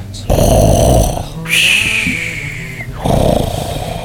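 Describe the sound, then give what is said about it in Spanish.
Loud snoring sound effect with two long rasping breaths, the second rising into a whistling, nasal wheeze before a final deep snore. “Incluso la televisión se callaría y empezaría a roncar.”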